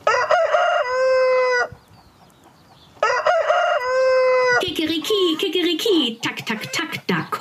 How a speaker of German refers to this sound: Kaum hat dies der Hahn gesehen, fängt er auch schon an zu krähen.